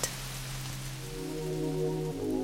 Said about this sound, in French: Elle lui fit un bisou sur la joue droite et elle partit bien vite, parce qu'il pleuvait de plus en plus fort et que la soupe devait être prête.